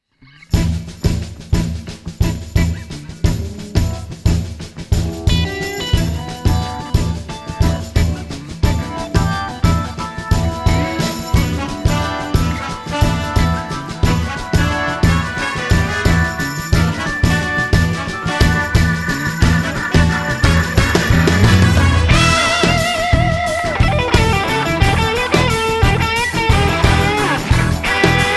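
A loud blues band recording, played loud, plays steadily with a driving rhythmic beat, bright guitar-like tones and dense harmonic layers, building slightly in intensity toward the end with no talking.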